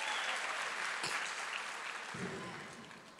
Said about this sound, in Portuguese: Só quem é herdeiro aplaude o Senhor.